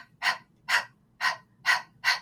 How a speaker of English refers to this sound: But if you're just standing, imagine yourself going up onto your toes toes. And then as you come down, you're just hitting your heels into the ground. And then you're exhaling as your heels hit the ground. It sounds like this.